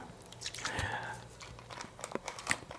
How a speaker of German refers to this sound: dann äh, noch ein Schluck aus der Flasche, wie wir eben gehört haben.